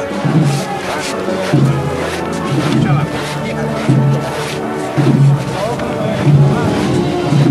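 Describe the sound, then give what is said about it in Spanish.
A group of costaleros (religious procession bearers) shuffle their feet across sand laid down on the procession route in a steady, swaying rhythm, the gritty scraping swelling with each pulse, loud, with murmuring voices underneath. “como suena hoy el rachear de los costaleros con la arena que han hecho aquí.”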